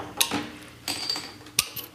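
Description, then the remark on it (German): Glasses clinking together in a toast: a few sharp, bright clinks spread over two seconds, one leaving a brief high ringing tone, with no talking in between. “Ja, Stößchen, ne? Stößchen.”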